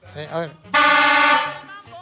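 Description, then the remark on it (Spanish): A vintage car with a Dodge engine sounds its trumpet horn once in a loud, sustained, brassy honk lasting under a second, with rich harmonics, between stretches of voices talking. “Va a sonar la, trompeta.”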